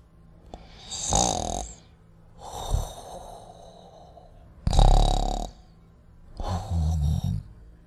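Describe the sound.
A voice imitates snoring as the little mole character (鼹鼠小弟) in a story: four rasping, breathy snores at uneven intervals, each a hissy inhale over a low rattling rumble, the third loudest, with quiet pauses between and no talking.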